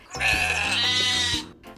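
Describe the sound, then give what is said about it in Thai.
A single loud, drawn-out bleat of a goat or sheep, nasal and slightly wavering, lasting about a second before fading into quiet. No one speaks. “แพะกับแกะ”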